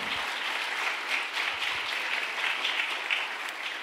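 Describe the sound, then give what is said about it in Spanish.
Loud, sustained applause from an audience giving a round of applause to the Lord during a church sermon, a dense wash of many hands clapping steadily with no voices standing out, holding a fairly even level throughout. “Sí, den un aplauso fuerte al Señor, qué lindo.”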